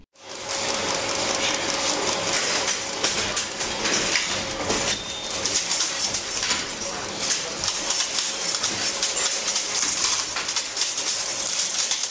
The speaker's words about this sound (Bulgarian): Това е линотипна машина. В предния и край седи човек и пише на клавиатура, а отзад това чудовище стопява слитъци метална сплав и излива изписаните букви в редове.